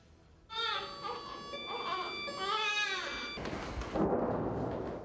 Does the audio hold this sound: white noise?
no